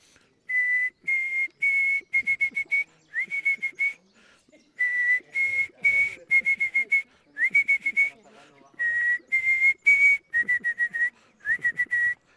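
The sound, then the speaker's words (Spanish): A man whistles a simple melody in short phrases of clear, steady notes separated by brief pauses, with faint background noise underneath, while walking through the tourist town of Puerto de la Cruz. “Sí, soy muy malo cantando y ya no les cuento silbando.”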